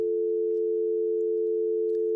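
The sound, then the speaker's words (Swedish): A steady, unbroken telephone dial tone, heard after the receiver is lifted to call a friend, hums at an even, moderate level for about two seconds, a single pure pitch with no voices or other sounds around it. “Jag lyfte luren och ringde min polare som jag inte hade talat med på flera månader.”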